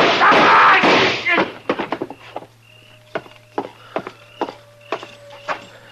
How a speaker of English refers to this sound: It was close, but he missed me. Well, uh, you two didn't miss him. I don't know which one of you fired first, but either bullet would have done it.